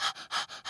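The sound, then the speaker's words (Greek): A person imitates the rapid, breathy panting of a heavily pregnant woman out of breath, as if she had just finished a hundred-metre sprint, with about four quick airy gasps in a steady rhythm, fairly loud, and no talking. “Σαν να έχει μόλι θερματίσει ένα κατοστάρι, α πούμε, αυτό το συνέχεια.”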